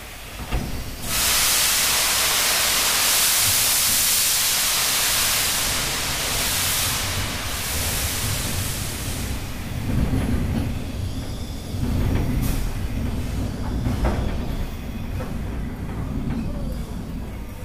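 The SL Taiju steam locomotive crosses the Daiyagawa railway bridge, opening with a loud, sustained burst of hissing steam that gives way to heavy rumbling and rhythmic wheel clatter.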